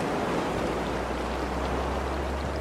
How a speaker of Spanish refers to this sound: pueden escuchar que el mar es mucho más bronco, pueden escuchar el viento porque esta es una playa famosa mundialmente donde se han celebrado competencias mundiales de surfing.